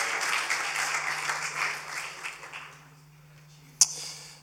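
audience clapping

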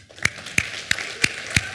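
audience applause

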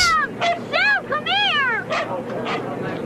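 dog barking and yipping

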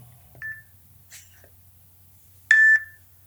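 electronic beeps

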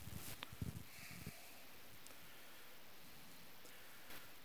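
rain falling

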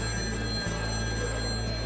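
telephone ringing

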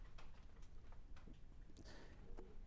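typing on a keyboard

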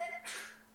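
sneeze

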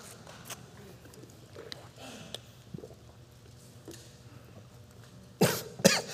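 coughing

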